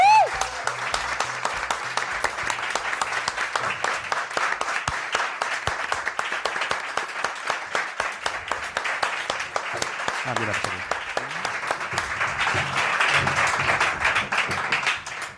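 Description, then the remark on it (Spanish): A studio audience applauds steadily for about fifteen seconds for two young members of Quinótico, a dense, even wash of many hands clapping, swelling slightly near the end, with faint voices and cheers beneath. “Pero toca dar un aplauso a parte de las juventudes de Quinótico, unos más juventudes que otros, que han hecho en los últimos meses lo que tienes que saber.”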